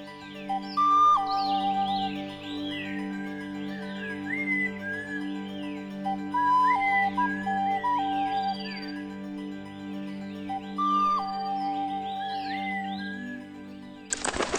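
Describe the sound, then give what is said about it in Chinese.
Birds sing in a wooded bamboo grove on a cold day, with busy overlapping high chirps and trills and occasional clear whistled notes repeating every few seconds over a steady low hum; a pair of parrotbills (山鸦雀) hops from bamboo branch to bamboo branch. “鸟儿的歌唱”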